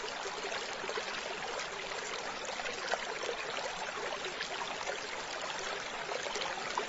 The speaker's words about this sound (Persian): این صدای آرامش بخش جریان آب آزادی رو که دارید میشنوید نوید میده که برنامه ما در چه موردی هستش